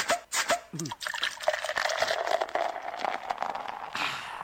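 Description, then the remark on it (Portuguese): A drink is poured steadily into a glass: a continuous gurgling trickle whose pitch gradually rises as the glass fills, with a bubbly fizz underneath, lasting several seconds. “Desce mais duas pra gente aí,”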